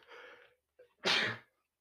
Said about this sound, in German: Ich musste niesen. Ist immer, ist immer unpraktisch bei ähm, Podcasts niesen zu müssen. Das ist blöd.